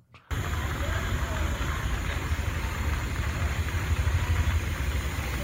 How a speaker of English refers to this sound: This is the static noise at the fundraising once her speech started. And you can hear that it's Hillary talking in the background, but you can't hear what she's saying.